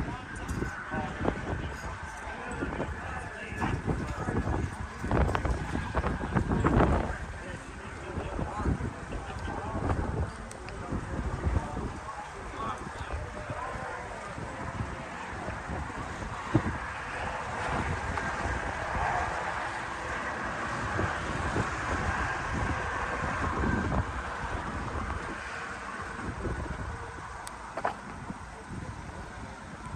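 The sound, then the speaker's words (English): Steady, buffeting wind rumble batters the microphone outdoors on a breezy day on the Avenue of the Saints in Southeast Iowa, a loud low roar with gusty bursts that never lets up. “it is breezy. So if you're hearing a lot of wind, I'll do my best to keep that noise down, but it's going to be kind of hard.”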